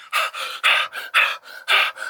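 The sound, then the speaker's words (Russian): A person imitates rapid, anxious panting: breathy in-and-out huffs in a quick, steady rhythm, about four breaths in two seconds, fairly loud, with no talking. “там дышать таким, таким встревоженным таким дыханием, естественно, малыш это почувствует, ваше внутреннее состояние, и не успокоится.”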